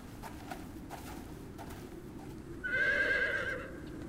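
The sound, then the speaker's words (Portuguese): Hooves clip-clop in a steady rhythm over a low rumble, then a horse lets out a loud, sustained whinny near the end. No one speaks. “Vocês levam os cavalos”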